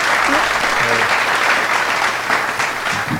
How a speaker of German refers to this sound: Äh, alle euphorisch und klatschen hier. Dein ganz genau. persönlicher virtueller privater Applaus.